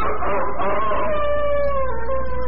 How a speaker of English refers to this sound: What is that? That's Blinky. Blinky? Yes, it's our dog well, my goodness, does he always howl like that? No, Miss Lane, only when Barney is about to dream.